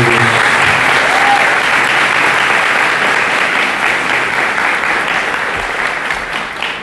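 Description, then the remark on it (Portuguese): A crowd applauds the word of God after a Bible reading, with dense, continuous clapping that stays loud throughout and tapers slightly toward the end. “Dê uma salva de palmas à palavra de Deus.”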